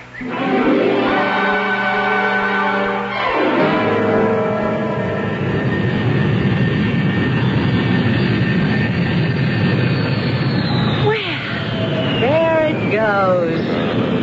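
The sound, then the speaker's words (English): A loud, steady airplane engine roar fills the scene as the aircraft powers up and takes off, its tone shifting and whining toward the end, with faint crowd voices beneath. “I had to see that plane in the sky before I'd leave.”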